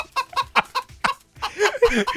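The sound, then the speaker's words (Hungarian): A voice imitates a chicken clucking: five quick clucks in a steady rhythm, a brief pause, then a longer warbling cackle, loud. “ezen felül, ezen felül, akik még szintén nem jók, de nagyon kapirgálnak a pályán, vagy itt egy csirke, meg.”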